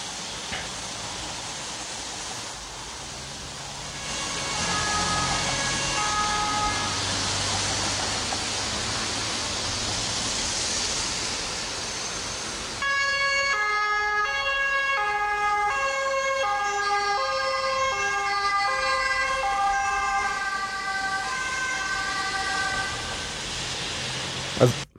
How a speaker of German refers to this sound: Also wie man gehört hat, zwei Autos hintereinander. Uns zwei, genau. Ja. Das sind bei uns die Folgetonhörner.